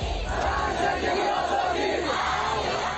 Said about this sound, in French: Sa mort a provoqué un soulèvement à travers tout le pays. Des cris de colère réprimés avec force par les autorités.